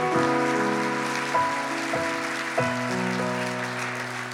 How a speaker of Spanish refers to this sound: Dale un aplauso a la palabra del Señor.